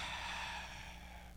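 A single slow, deep breath drawn in through the mouth, airy, steady and fairly soft, with no talking.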